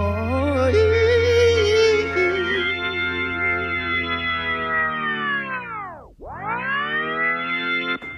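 A song with loud, effects-heavy electronic music and warbling synth tones plays steadily, then its pitch swoops sharply down into a brief dip before sweeping back up to full volume.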